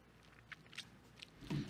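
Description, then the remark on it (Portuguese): Someone bites into food up close: a few soft, crisp crunches spaced out, then a louder, fuller bite near the end, with no talking. “Isso, e dá-lhe uma mordida.”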